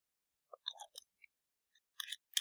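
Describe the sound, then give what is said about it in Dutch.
Quiet sipping of coffee: a few short, wet slurping and lip-smacking bursts spread over a couple of seconds, soft and irregular, with no talking. “Maar ik neem nog even een slokje hè, voor de om mezelf even de smaak goed, eh, met, bekend te maken.”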